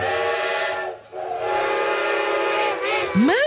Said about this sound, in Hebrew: שומעת? צפירה של רכבת. צפירה של רכבת? אז מה אני יושבת? זאת הרי הרכבת האחרונה.